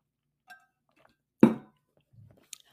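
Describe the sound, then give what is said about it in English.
Someone takes a drink of water from a glass: a faint ringing clink, then a loud knock as the glass is handled, a soft low swallow and a small click, with no talking. “Hold on, I need a drink of water.”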